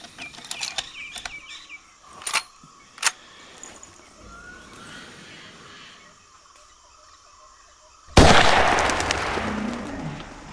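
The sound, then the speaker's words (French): Metallic clicks and a couple of sharp snaps lead up to a single loud gunshot from an antique firearm, its booming blast trailing off in a long, hissing rumble. “Ouais, c'est vos armes qui sont pourries aussi là.”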